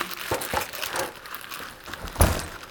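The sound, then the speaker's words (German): Plastic ice cube bags crinkle and rustle as they are handled, with a steady papery crackle and several sharper crunches, the loudest near the end. “Dann sind da noch Eiswürfelbeutel.”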